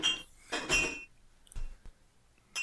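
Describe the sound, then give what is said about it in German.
Glass beer bottles clink and clatter together as beers are fetched from a fridge, a few sharp ringing knocks with bright tones spaced irregularly over a couple of seconds, with no voices. “Okay, ich hole mir zwei Bier.”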